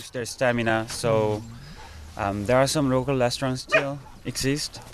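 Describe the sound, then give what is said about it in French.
Several dogs at a dog meat farm in South Korea bark, yelp and whine over one another in a loud, continuous chorus, with high-pitched cries rising and falling. “Dans des fermes comme ça, les chiens accouchent ici, naissent ici et restent généralement moins d'un an.”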